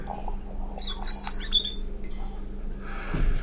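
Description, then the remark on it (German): A European robin sings a run of thin, high, warbling phrases and trills over a steady low hum, with a brief rustling noise near the end. “Das war das Rotkehlchen.”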